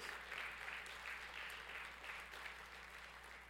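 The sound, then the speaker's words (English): A crowd gives a hand clap of praise to God, clapping steadily in a dense, continuous wash of many hands, with no pauses and no distinct individual beats standing out. “If you know that, can you give me a hand clap of praise?”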